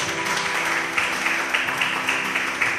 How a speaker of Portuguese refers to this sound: Vamos aplaudir o nome dele.